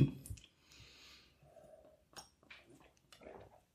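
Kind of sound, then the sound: household object, glasses clinking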